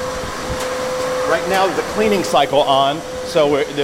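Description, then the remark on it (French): A steady machine whoosh with a constant tonal hum runs throughout as a brewery tank runs its automatic self-cleaning cycle, while voices talk over it in the second half. “Là, le cycle de nettoyage est en marche.”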